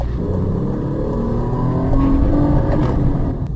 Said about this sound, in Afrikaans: Die 3-silinder maak so 'n mooi ongelyke rasperagtige klank. Maar redelik gediem. Dis nie asof dit 'n lawaaiige kragbron is nie.